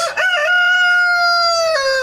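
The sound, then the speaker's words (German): A rooster on a farm crows once, loud, its call rising sharply then holding a long, strained, sustained note before breaking off at the end. No voices are heard. “das ist einerseits natürlich auch mal sehr idyllisch, wenn hier morgens dann der Hahn kräht, aber andererseits muss man auch bedenken, dass wir hier Gäste haben, die Urlaub mhm.”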